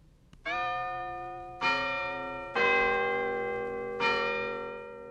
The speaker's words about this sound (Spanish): La campana hizo clink clon y despertó a las palomas azules.